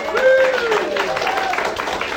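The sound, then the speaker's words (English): An audience claps for the speaker's wife, who is about to get her degree, a dense patter of clapping that runs steadily for a couple of seconds, with a voice whooping over it at the start. “Clap for that.”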